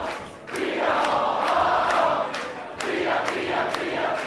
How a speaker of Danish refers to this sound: Det er fire år, de råber, og øh, der er kæmpe fest herinde. Jeg ved ikke, om det er det her sted, der egentlig er allermest fest af alle